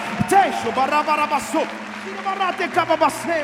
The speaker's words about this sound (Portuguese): Se você crê no que eu estou dizendo, dê um brado ao Senhor, dê um brado ao Senhor e aplauda nesse lugar.